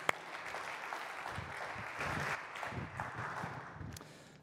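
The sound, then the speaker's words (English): An audience at a morning church service applauds a first-time preacher before his sermon, steady, dense overlapping claps at moderate volume that hold for several seconds before starting to taper off near the end. “Give it up for”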